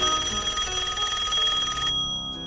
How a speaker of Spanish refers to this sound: Recibo una llamada telefónica